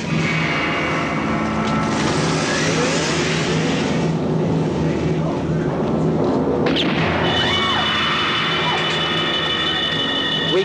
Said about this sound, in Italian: Due sospetti si allontanano su un'auto rossa.